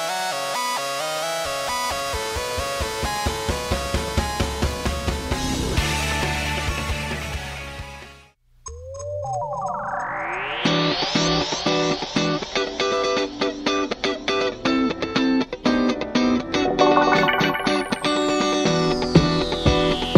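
A full-band song played on air on the radio show TBS Double Date plays loudly, steady drums and layered instruments filling the mix, then a brief drop near the middle before a rising sweep brings the music back in, bigger and brighter.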